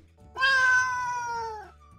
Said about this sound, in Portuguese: Aí chegou o Kim, o gato,